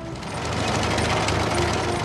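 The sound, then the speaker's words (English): A steady, dense mechanical clatter with a low engine rumble underneath from Terence, a crawler tractor rolling along on caterpillar tracks, holding loud and even for about two seconds with no voices. “Terence is a happy, helpful tractor who's very proud of his caterpillar tracks and makes a sound like this.”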